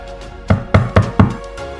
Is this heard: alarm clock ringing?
no